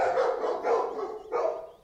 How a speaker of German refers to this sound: und die Hunde vom Nachbarn sind ihm immer zu laut.